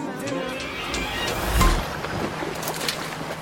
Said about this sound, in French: Écoutez, vous entendez les voiles claquer ce ne sont pas celles d'un chalutier ou d'un bateau de croisière, non. Aujourd'hui, on embarque à bord d'un cargo voilier de 60 mètres de long, transportant quelques centaines de tonnes de marchandises.